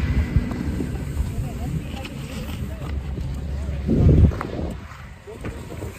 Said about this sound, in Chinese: 风很大